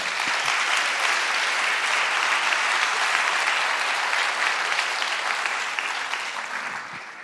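Steady, dense audience applause welcoming a speaker to a talk, with many hands clapping at once, holding a loud even level for several seconds before easing off slightly toward the end. No voices are heard.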